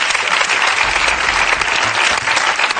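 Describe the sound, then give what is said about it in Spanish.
An audience claps steadily, applauding a pun, in a dense, continuous burst of applause that stays loud and even for a few seconds, with no voices standing out over it. “Jo, aplauden el juego de palabras.”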